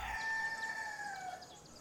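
A rooster crows once in a long, sustained call that holds steady before trailing off, loud, with no voices present.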